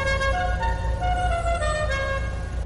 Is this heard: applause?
no